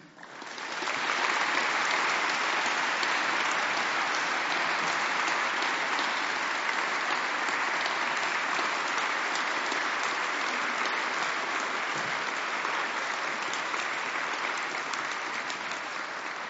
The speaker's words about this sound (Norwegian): Så jeg har lyst til at vi skal gi en varm applaus til Espen Ottosen.